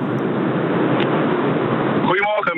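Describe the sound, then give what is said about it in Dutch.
Steady, loud car interior road rumble heard through a narrow phone line, droning continuously for about two seconds before a voice starts speaking over it near the end. “En je zit in de raket van Jeff Bezos eh, de atmosfeer uit, hoor ik. Eh, wel in de auto inderdaad”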